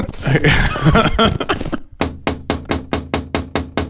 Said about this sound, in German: Ich glaube, der muss noch ein bisschen lauter klopfen, damit man den hört.